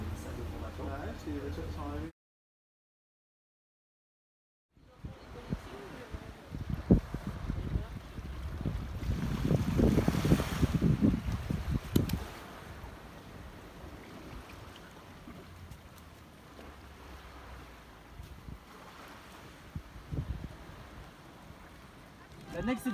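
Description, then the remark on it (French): A large ferry's deep engine rumble swells as it passes out at sea, loudest midway, with gusty wind buffeting the microphone throughout after a brief silent gap near the start. “Et je crois même qu'il transporte de voitures.”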